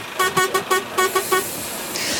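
The horn of the NPO Radio 1 bus honks on its arrival in Gelderland in a quick series of about six short, loud blasts with a bright, steady tone, followed by a wash of road noise as the toots stop.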